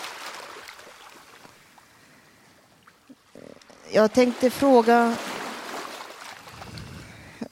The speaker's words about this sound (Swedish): Vågorna skvalpar och ni vilar och har det bra. Ljudet av vågorna denna sommardag. Kan det bli bättre än så här? Ligga och höra på vågor.